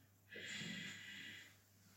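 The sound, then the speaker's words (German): A person imitates a bull's snort with one forceful, breathy exhale lasting about a second, with no talking around it. “Der Stier. Der Stier.”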